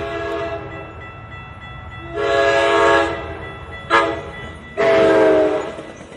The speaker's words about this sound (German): Die Mitglieder der Lehrergewerkschaft haben die besetzten Gleise am Montag freigegeben. Nach zwei Monaten Stillstand rollten die Güterzüge quietschend an und auch der Klang der Warnsignale an den Bahnübergängen war wieder zu hören.